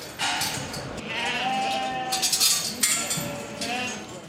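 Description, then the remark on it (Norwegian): Several sheep bleat in overlapping, wavering cries amid a busy livestock auction hall, with metallic clinks and a low crowd murmur underneath; a farmer's 34 top-quality sheep are unloaded from a trailer, put into pens and weighed, sold by price per kilo. “I dag har han med seg 34 sau av førsteklasses kvalitet.”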